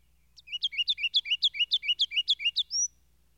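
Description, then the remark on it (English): A wren sings a quick, even run of a dozen or so thin, high-pitched notes that ends on a short rising whistle. The song is clear and stands alone with no talking. “Beginning in a fine, round, needle like note and rising into a full, sustained warble.”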